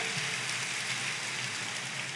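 An audience applauding, a dense, steady wash of many hands clapping at once that holds at an even loudness throughout, with no voices over it.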